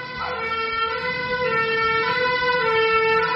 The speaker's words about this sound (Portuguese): Eu achei que meu microfone estava fechado e passou um bombeiro aqui.